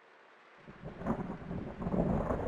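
Steady rain hisses throughout, joined by a low rumble of thunder that swells after the first half-second and rolls on to the end, moderately loud.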